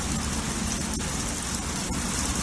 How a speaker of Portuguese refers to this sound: Aumenta o som da chuva.